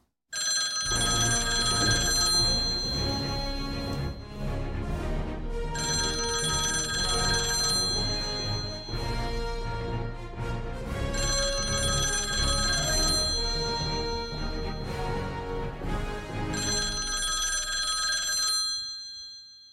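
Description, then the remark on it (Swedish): A telephone rings repeatedly while a call goes out to a guest: four long, bright rings separated by short pauses, steady and fairly loud, with no one speaking until it stops. “Jag tycker fasen vi ringer honom nu.”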